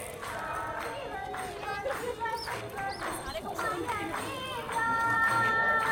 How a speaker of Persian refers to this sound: به نظر صدای جشن و پایکوبیه کمی جلوتر انگار همه دور کسی یا چیزی حلقه زدن هنوز درست مشخص نیست با هم یه آهنگ هندی میخونن و دست میزنن